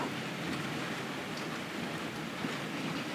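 Steady rain patters continuously, a dense hiss of countless drops at an even, moderate level from start to finish, with no voices or other distinct sounds.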